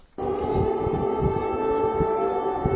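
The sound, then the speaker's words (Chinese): An air raid siren sounds at night in Kyiv, Ukraine, during a Russian drone attack. It starts abruptly and holds one loud, steady mid-pitched wail, with an irregular low rumble beneath it and no voices. “基辅响起空袭警报后没多久，漆黑的夜空随即闪现亮白色的光点，这是乌克兰防空部队为了拦截俄罗斯自杀式无人机所发射的密集炮火。”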